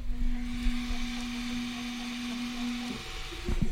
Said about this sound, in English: hear that noise? I'm going to segue into that right now. That is a 3D printer that just finished a print.